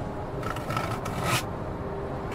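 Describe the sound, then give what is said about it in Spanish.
Rough scratching on the wooden door of a latrine, as something tries to open it, a cluster of raspy scrapes for about a second, then a quieter hiss. Moderately loud over a low background rumble, with no voices. “Cuando mi mamá recuperó el conocimiento, comenta que ya iba a salir de la letrina cuando de repente empezó a escuchar rasguidos en la letrina”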